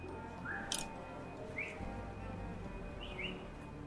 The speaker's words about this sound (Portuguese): assobia do outro lado da rua, avisando que viu algo.